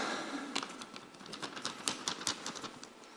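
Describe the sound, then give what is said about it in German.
A sheet of paper being folded once, a run of crisp, dry crackles and rustles with several sharper snaps, fairly quiet and with no one talking. “Wir falten es einmal.”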